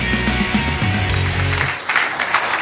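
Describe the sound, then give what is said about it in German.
Dense, continuous clapping from an audience fills the whole moment, fairly loud and steady, with a low tonal hum underneath at the start. “Ganz herzlichen Dank. Ich gebe den Applaus weiter an die, die dieses Filmstück produziert haben.”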